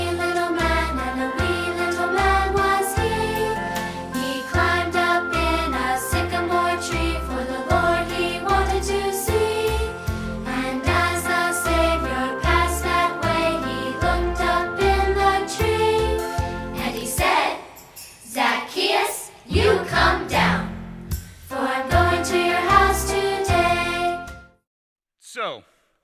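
A bouncy, upbeat children's song played from a video, with sung vocals over steady, bright instrumental backing, shifting to sparser vocal phrases near the end before cutting off abruptly into silence.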